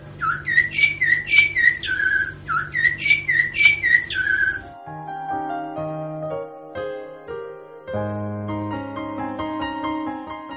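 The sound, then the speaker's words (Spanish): A blackbird sings up in a tree, bright, rapid chirping phrases, repeated in quick bursts over a steady low musical drone for a few seconds, then gentle melodic music carries on without the bird. “Un mirlo cantaba una linda canción como siempre.”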